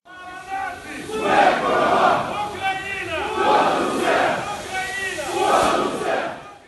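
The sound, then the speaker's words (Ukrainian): A protest crowd in a Ukrainian city chants together in loud, rhythmic surges, each shouted phrase rising and falling about every two seconds over a steady roar of many voices. “Того ж дня на вулиці українських міст вийшли з протестами.”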